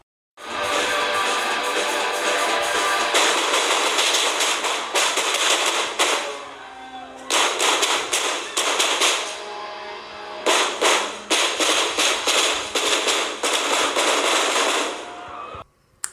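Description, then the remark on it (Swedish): Long rapid volleys of sharp cracking gunshots fired at a concert at the end of a song, dense and continuous like firecrackers or fireworks, broken by brief pauses before bursting again, loud throughout. “Och i slutet på låten hörs något som man tror är fyrverkerier och jag tänkte att jag skulle spela upp det.”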